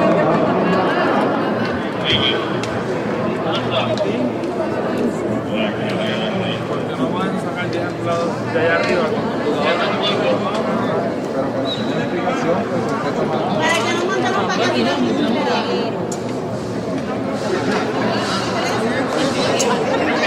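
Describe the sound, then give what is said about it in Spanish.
An angry crowd protests at a convention center, where people came to request unemployment program benefits. Many voices clamor and shout over one another in a dense, continuous roar that stays loud for the whole stretch. “Eso que ustedes escucharon, mis amigos, eso fue la gente molesta protestando en el centro de convenciones que fueron allí a solicitar beneficios del programa del desempleo durante el día de ayer”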